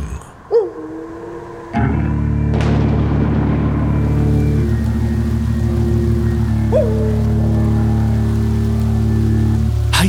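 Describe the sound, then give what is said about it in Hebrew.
Steady heavy rain hisses on an especially rainy stormy night in Givatayim, beneath a loud, sustained low musical drone, with a sharp thunder crack near the start and a few brief swooping tones; no one speaks. “זה ליל סערה גשום במיוחד.”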